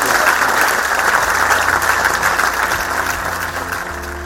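Sustained applause from a large audience at a Harrogate International Festivals event thanking author Michael Connelly, a dense, steady clatter of many hands clapping at once, loud and continuous throughout with no voices standing out.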